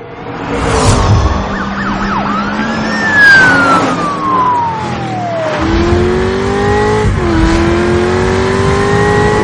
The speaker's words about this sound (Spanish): Media docena de coches patrulla persiguen al Corvette negro. deportivo acelera y el cuenta kilómetros marca 110 millas por hora.